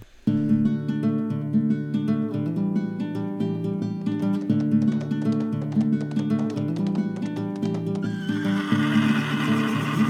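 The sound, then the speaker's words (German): A horse whinnies over a steady, rhythmic clip-clop of hooves that runs loud for about ten seconds, with a brighter, breathier neigh rising near the end. “Ja, das Pferd ist hier ganz. Also Pferde sind immer aufgeregt.”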